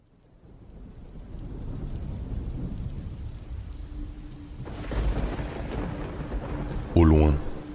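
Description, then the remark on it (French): Deep, rolling thunder rumbles beneath steady heavy, icy rain over a village on a starless night, swelling gradually over several seconds; a voice briefly starts speaking at the very end. “Le tonnerre grondait. C'était une nuit sans étoiles. Une pluie glaçante tombait sur le village tandis que des bourrasques gelées s'engouffraient dans ses rues.”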